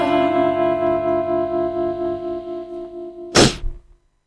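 A song reaches its end: a sustained, effects-heavy chord rings with reverb, then a sudden loud noisy burst cuts in and everything quickly dies away to silence.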